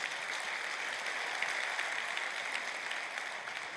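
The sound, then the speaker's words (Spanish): An audience applauds Christ steadily, a dense, continuous wash of many hands clapping at an even level for several seconds with no talking over it. “Dale otro aplauso a Cristo, gloria a Dios.”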